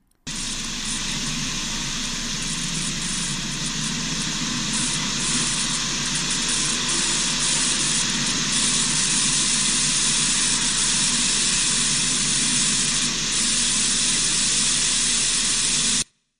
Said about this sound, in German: diese Aufnahme ist seltsam denn von 33 Aufnahmen ist dies die einzige, die durchgehend diesen seltsamen elektrischen Klang hat. Das geschah zwischen 2 und 3 Uhr morgens. Ich habe keine Erklärung für die Aufnahmen